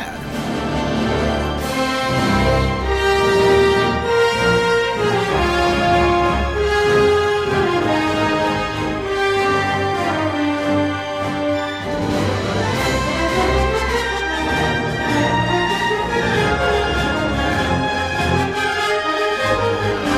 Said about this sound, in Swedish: Bilar 3, det här är från 2017 och det låter så här.